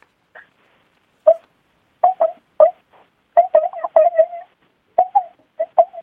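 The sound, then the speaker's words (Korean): A person imitates the dreaming whimpers of a puppy asleep beside its mother dog: a string of short, high, squeaky whines in irregular bursts, fairly loud, with no talking. “아 엄마께 옆에서 잠든 강아지가 아. 꿈꾸는 소리입니다.”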